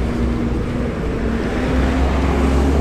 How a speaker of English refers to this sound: Now, this um, passageway goes up and it actually turns into uh, almost like a city wall, you would say. Traffic uh, passes underneath it uh, two arches, actually three, but only two are used for traffic.